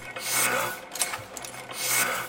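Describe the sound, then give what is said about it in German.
Printing machines run steadily in a long-established family print shop in Bochum, founded in 1959, that prints flyers, posters and brochures, with a dense mechanical clatter and whir, swelling and easing in a slow repeating cycle, with occasional sharper clicks in the mix. “Eine alteingesessene Druckerei in Bochum.”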